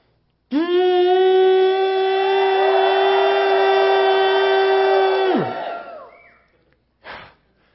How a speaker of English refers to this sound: And as they blew their horns, and as the people shouted, the ground began to shake.